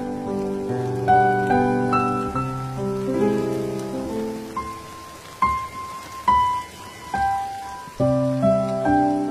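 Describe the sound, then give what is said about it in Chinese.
Soft, steady rain patters in a continuous hiss beneath slow, sustained melodic tones, with a few brighter struck notes ringing out over the drizzle. No one speaks. “我在古都西安，每天晚上等你和我一起聆听下雨的声音。”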